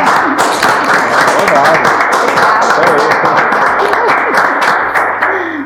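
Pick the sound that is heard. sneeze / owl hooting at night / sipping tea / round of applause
round of applause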